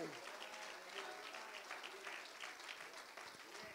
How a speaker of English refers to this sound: Praise God. Why don't we clap our hands again? Hallelujah.